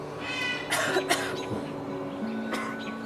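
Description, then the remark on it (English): A raven imitates the cough of a person with a cold: three harsh, raspy bursts, two close together and one after a short pause, against a quiet background. “And sometimes he hears people who have a cold”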